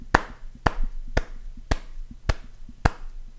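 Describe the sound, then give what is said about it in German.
Sharp slaps of a penis against a microphone land in a steady rhythm, about six loud hits with softer low thumps in between, tapping out a song's beat. No one speaks. “ja, ich klatsche meinen Penis auf das Mikrofon.”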